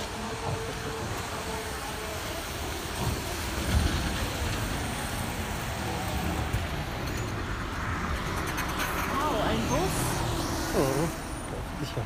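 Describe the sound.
A bus rumbles past on a busy street, its low engine drone swelling and fading amid steady traffic noise, with people talking.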